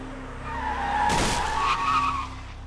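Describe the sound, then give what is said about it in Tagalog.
A car's tires squeal in a sharp, wavering skid that lasts about two seconds, with a brief rushing burst of engine and road noise as the car suddenly speeds up at an intersection with traffic lights. “Subalit hindi pa man ako nakakarating sa gitna ay may isang kotseng bigla nilang humarurot mula sa kung saan.”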